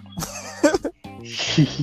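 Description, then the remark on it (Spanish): A person imitates a donkey's bray: two loud, rasping, honking bursts with a short pause between, the second breathier and noisier than the first. “no, güey, el burro, güey.”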